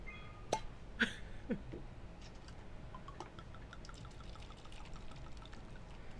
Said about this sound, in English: Oh, it's kind of. I guess it's like a sparkling wine because it's like fizzing up.